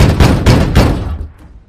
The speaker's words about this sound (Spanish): Artyom golpeó una vez más la puerta con todas sus fuerzas